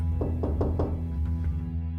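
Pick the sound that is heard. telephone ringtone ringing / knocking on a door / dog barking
knocking on a door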